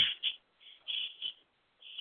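Newly acquired pet birds chirp in the background in a quick, uneven series of high, thin bursts, about six short calls over two seconds, fairly quiet and with no talking.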